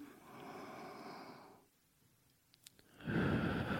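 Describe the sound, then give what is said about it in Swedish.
A long, steady breath drawn in through the nose with an airy hiss, a short pause, then a louder gust of breath out through the mouth starting at the end, as a calming breathing exercise. Fairly clear, with no talking. “Så nu andas jag in genom näsan.”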